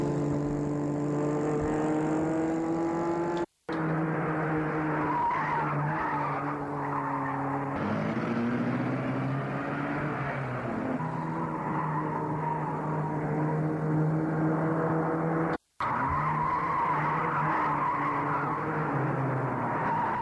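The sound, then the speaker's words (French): Tires squeal and skid repeatedly as car engines roar and rev in a car chase, with cars pursuing another car. Sustained tonal screeching over dense engine noise, with two brief dropouts where the sound cuts to silence. “Les autres les poursuivent en voiture.”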